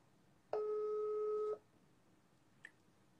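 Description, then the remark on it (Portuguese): A single steady two-pitch telephone tone sounds for about a second as someone dials a call, clear, followed by a brief faint click, with no one speaking. “Vou tentar ligar para ela, que daí a gente faz por telefone.”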